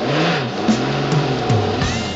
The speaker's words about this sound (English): they chickened out and put the car into reverse.